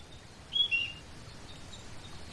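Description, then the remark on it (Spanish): A couple of short, high bird chirps ring out early on, followed by faint twittering of birds singing in a green forest with bushes, over a soft, steady outdoor hush. “Ahora hay arbustos, escuchan pájaros cantar”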